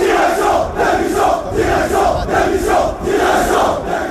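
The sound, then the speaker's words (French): A large crowd of Paris Saint-Germain football supporters chants in unison at a rally outside the club's headquarters in Paris, a loud rhythmic slogan calling for the management's resignation repeated in pulsing bursts about every half second, dense with no single voice standing out. “direction, démission, disent-ils, sans compter les insultes contre plusieurs joueurs qu'on ne va pas diffuser”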